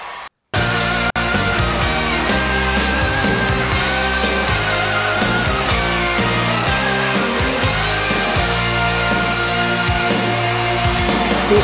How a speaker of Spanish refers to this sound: podría ser también otra rolita para aquí